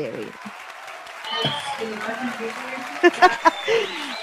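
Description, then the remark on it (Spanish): Applause from a small audience welcoming artists of the Fotosíntesis project, a steady wash of clapping lasting a few seconds, with voices murmuring and a few louder shouts or cheers near the end. “Yo orgullosa de estar con estos compañeros en el proyecto Fotosíntesis, así que le damos la bienvenida y un fuerte aplauso a estas grandes personas del arte.”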